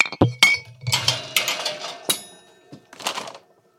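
An Aldi shopping cart rattles and clinks in a string of sharp metallic knocks and jangling bursts, loud and irregular, with no talking over it.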